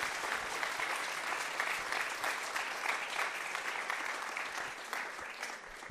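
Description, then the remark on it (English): An audience claps steadily for several seconds, a dense, even patter of many hands with no pauses, holding fairly loud throughout and tapering only slightly at the end. “No, you can definitely applause. You're about to. I heard you do it.”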